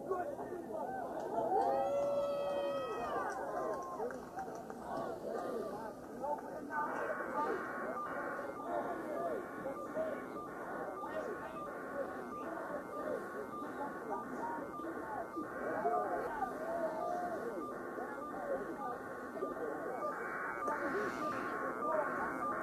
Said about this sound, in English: And we continue with more um, aerial footage. That's what you guys keep hearing.